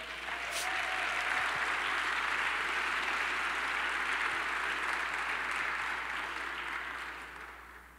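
A crowd applauds the Lord steadily for about eight seconds, a dense wash of many hands clapping at once that fades slightly toward the end.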